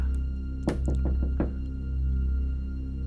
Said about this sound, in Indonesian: ada suara ketokan dari pintu akses buat ke ruangan sebelah. Nah, pintu itu di belakang TV. Jadi ini TV, ini pintu.